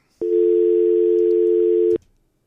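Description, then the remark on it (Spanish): A steady, loud telephone dial tone holds for almost two seconds, starting and stopping abruptly, with nothing else around it, after a caller's call drops. “esto vienen y se caen, entran todas de, sopetón y, se cae la llamada.”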